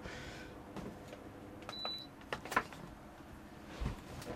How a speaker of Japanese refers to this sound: あ違ったごめん ごめん僕今パソコン悪者にしたけど足元でサーキュレーターが回ってるわ